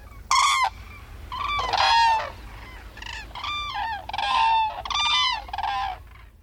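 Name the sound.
whooping crane calls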